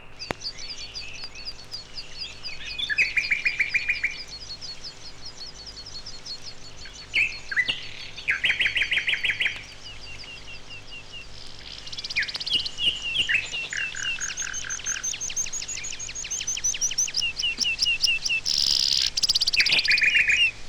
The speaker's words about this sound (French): Farlouse commence son chant très haut dans les airs pour revenir à son poste, une pierre dans le gazon.